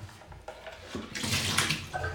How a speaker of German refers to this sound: Maschine ausmachen, Pads wegkippen, Wasser ausleeren.